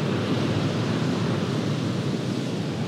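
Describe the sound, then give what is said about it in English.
A steady, continuous roar of Atlantic Ocean waves washing onto a shore by sparkling water, fairly loud and even throughout, with no distinct individual crashes standing out and no voices. “I'm so grateful that you ended up raising me by, by this water.”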